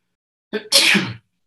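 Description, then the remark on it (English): A single loud sneeze: a short breathy intake followed by a sharp, noisy burst lasting about half a second, then silence. “Bless you.”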